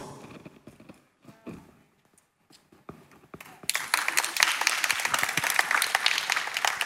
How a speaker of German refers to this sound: Der Applaus kommt mit Glauben.